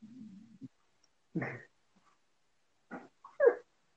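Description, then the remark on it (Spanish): A small dog whimpers: a low, drawn-out whine at first, then a few short, separate whimpering bursts with quiet gaps between them. No one speaks. “Mi perrito chiquito aquí quiere causarnos estrés.”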